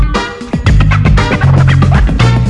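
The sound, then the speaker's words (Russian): Loud, full-band music broadcast on radio, playing back from a reel-to-reel tape on a Jupiter tape recorder: a steady bass line and dense instrumental texture, with a slightly rough, scratchy edge. It plays continuously for a couple of seconds with no voices. “Звучит катушечка вот так вот в нашем радиоэфире.”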